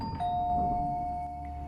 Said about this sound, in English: Someone rang the doorbell even before he could answer.